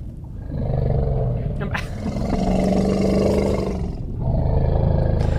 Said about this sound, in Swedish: Nej, det är typ ett lejon. En elefant! Bra!